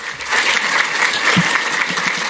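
Steady, dense applause from a sizable crowd at a City Club event in Chicago, welcoming an artist who opens the program with a reading; a continuous wash of many hands clapping at once, loud and sustained without pause for the full moment.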